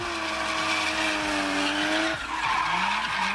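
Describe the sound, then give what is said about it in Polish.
A car drifts in a market parking lot at night, tires screeching loudly and continuously, a high squeal sliding in pitch over a roaring engine, intense for the whole stretch. “Nie wiedziałem, że driftowanie jest takie głośne.”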